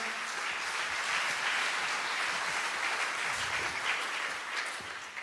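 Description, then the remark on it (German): Sustained audience applause after a testimony, a dense steady wash of many hands clapping at once, fairly loud and even throughout with no voices standing out. “Applaus für”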